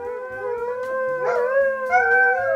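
A hound lets out a long, sustained howl, its pitch wavering and rising slightly as it carries on without a break, loud and close, with faint low thumping underneath.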